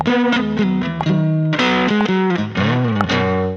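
A short, loud electric guitar lick with a gritty distorted tone, played alone: a few quick hammered notes and a bending phrase that slides between chords before ringing off.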